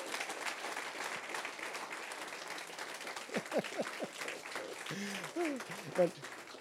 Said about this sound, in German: Ich weiß nicht, ob der Applaus jetzt, äh, ob er mir jetzt gut fühlen soll oder schlecht. Geben wir Jesus einmal einen gescheiten Applaus.